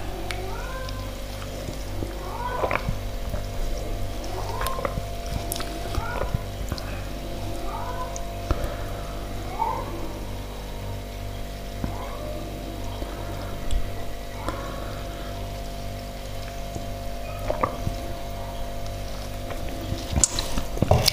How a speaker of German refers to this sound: dass erstmal das Wasser austrinken